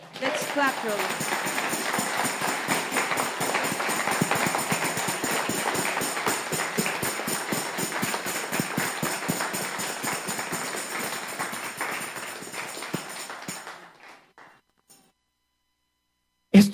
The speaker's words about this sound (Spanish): Le das un aplauso al Señor.